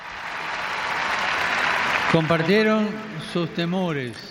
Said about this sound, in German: Also, das war doch toll. Die, die verdienen einen Applaus. Danke.